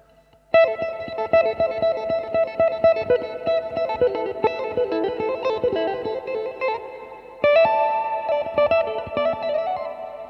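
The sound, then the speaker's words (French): An electric guitar with a chorus-like effect plays a fast run of plucked notes using a wide finger stretch, pauses briefly, then comes back louder with another phrase. No one speaks. “Par exemple, si moi je fais une grande, grande extension, mon pouce, je vais le mettre là.”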